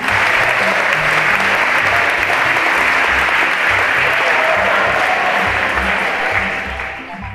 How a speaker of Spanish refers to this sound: entrega hoy, eh, en nombre del pueblo colombiano y latinoamericano, el aplauso más sonoro a la vida, obra y huella del gran maestro Bonifacio Bautista. Aplausos a su alma, a su legado y a su recuerdo.